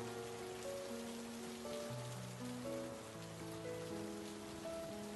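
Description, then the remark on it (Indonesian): Steady rain pours down at Soekarno-Hatta Airport as a continuous hiss of droplets, with soft sustained musical tones shifting underneath throughout. No one speaks. “Meskipun hujan dan petir bergemuruh, ah, syukurlah.”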